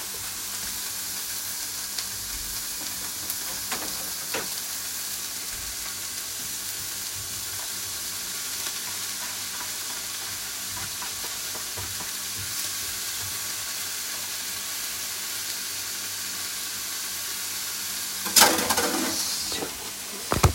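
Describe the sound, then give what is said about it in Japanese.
Steady crackling sizzle of ground pork stir-frying in a hot pan for a simple gapao-style dish, with occasional scrapes and clicks of stirring and a louder burst of sizzling near the end; no one talks. “ある程度炒まったら、えー、ひき肉入れていきます今日はえー、っと今日は豚肉豚ひき肉にしました”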